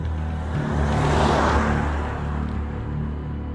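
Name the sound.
car driving off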